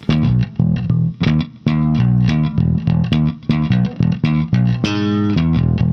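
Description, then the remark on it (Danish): An electric bass guitar is played loud, a run of punchy, rhythmic notes with a gritty, effected tone, ending on a longer sustained note. No one speaks. “Jeg bor stadig i en kælderlejlighed og bagud med tre måneders husleje, så jeg har fået herpes i udbrud og spiller stadig bas.”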